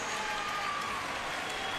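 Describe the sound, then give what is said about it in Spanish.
Steady, dense applause from an audience, a continuous wash of many hands clapping at an even loudness with no pauses or voices standing out. “Son aplausos que te llegan al arma, De verdad.”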